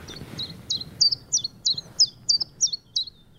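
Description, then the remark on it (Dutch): A common chiffchaff sings a steady series of about ten sharp, high notes, evenly paced, over a faint low background rumble. “De toornige Chifchaf.”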